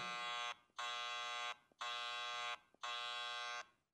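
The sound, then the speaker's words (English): A loud, harsh electronic buzzer blares four times in a steady rhythm, each blast lasting about a second with short gaps between, like a game show wrong-answer buzzer. No one speaks. “That Donald Trump, well, you, you got buzzed before you even said Trump because I knew what you were thinking.”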